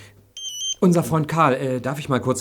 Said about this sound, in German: Oh, das ist mein Handy.